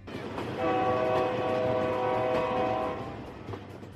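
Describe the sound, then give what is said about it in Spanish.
A train's horn blares one long, steady chord of several tones for a couple of seconds over the low rumble of the passing train, then cuts off and the rumble carries on. “Hay un refrán chino que dice, al sonar el silbato de tren vienen toneladas de oro.”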